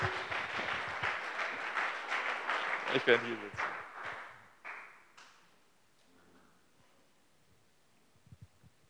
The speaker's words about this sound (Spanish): ¿Nos ayudas con, sí, un aplauso para ellos?